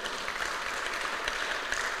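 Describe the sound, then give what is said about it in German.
An audience claps steadily, a dense wash of many hands with no break in the rhythm, holding at an even level for about two seconds with no voices over it. “Ich glaube, da darf man mal einen Applaus geben.”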